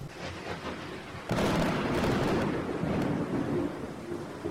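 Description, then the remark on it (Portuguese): A thunderstorm with steady rain noise, then a loud crack of thunder that rolls into a long, heavy rumble lasting several seconds. No voices are heard. “Eu sou Almir e hoje chove.”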